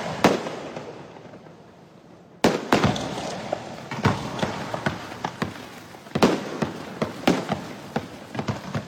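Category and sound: sound effect, fireworks bursting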